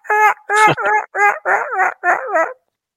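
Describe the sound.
A man vocally imitates a Merriam's turkey hen, giving a quick run of about seven nasal, yelping notes in an uneven rhythm, loud, with no talking.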